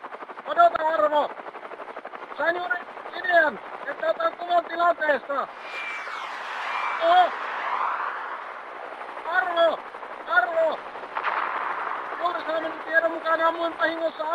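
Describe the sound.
A man talks over a sound effect of a combat helicopter firing two Hellfire missiles at a flying squirrel nesting area, with gunfire and two broad, rushing bursts swelling in the middle and again near the end.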